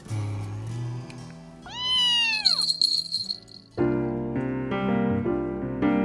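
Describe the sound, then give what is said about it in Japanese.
A cat gives a loud, drawn-out meow, its pitch rising then falling, followed by a second, lower, extended yowl that fades into a longer plaintive cry. “昔から帆船はネズミを捕まえるために猫を必ず1匹乗せたって言うからお前が帆船の模型に興味を持つのも仕方ないか”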